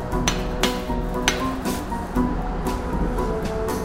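Several sharp hammer strikes ring against a metal blowpipe at an irregular pace over a steady roaring background, as a scored glass platter is knocked loose from the blowpipe and the whole piece cracks.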